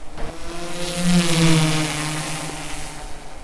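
A large black drone shaped like a crab gives a steady buzzing hum with stacked tonal whine, growing louder as it approaches, with broad rotor wash noise and no voices, as it takes images of surveyed homes in downtown Old Superior.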